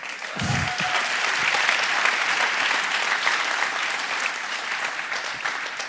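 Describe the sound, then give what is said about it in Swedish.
An audience applauds steadily for the full six seconds, a dense, even wash of many hands clapping at a consistent loudness with no speech over it. “Det tycker jag nästan man skulle kunna applådera.”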